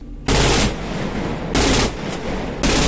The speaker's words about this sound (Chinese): 除了有防空射击之外，演练的科目还包括了对海和近战攻击。刹那间，枪声大作。